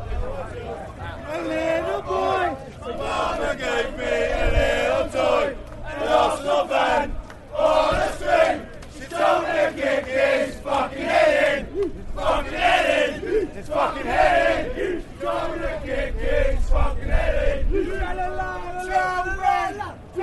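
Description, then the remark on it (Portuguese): A crowd of football fans in England sings a rowdy chant together about beating an Arsenal supporter, voices loud and continuous with a rough, rhythmic melody, occasional shouts rising above the group singing. “É, essa música já é mais falando sobre como bater num torcedor do Arsenal.”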